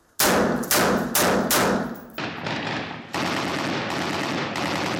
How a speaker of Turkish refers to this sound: Şu anda da hemen Tel Abyad'ın 13 kilometre batısındaki yerleşim alanında yoğun çatışma sesleri duyuluyor.